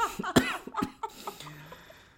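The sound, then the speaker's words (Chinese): A short burst of harsh coughing from someone who is ill and weak, two or three rough hacks in quick succession at the start, followed by weaker raspy breaths and a trailing throat-clearing sound that fades out. “我决定要保留我咳嗽的声音，让大家体验到我现在有多虚弱。”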